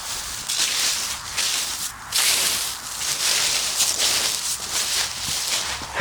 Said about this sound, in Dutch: Dat klinkt heerlijk. En het klinkt niet alleen heerlijk. Het voelt ook echt zalig om zo met je laarzen door het hele hoge gras wat bevroren is te lopen. Dat knispert, maar dat voelt ook zalig onder je voeten.